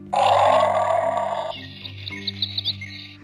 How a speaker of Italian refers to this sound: È arrivata la tigre la regina della foresta.